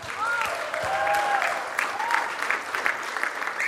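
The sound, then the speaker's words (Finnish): A crowd claps steadily for the worship team, a dense, continuous wash of applause with a few whoops or cheers rising briefly above it. “Annetaan vielä meidän ylistystiimille järkyttävän isot aplodit samalla kun istut, sä, sä pystyt siihen.”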